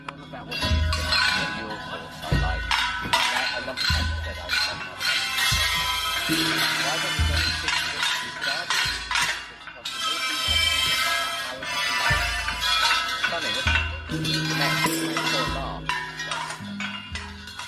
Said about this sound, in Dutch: Je luistert namelijk naar het enige Thaise olifantenorkest.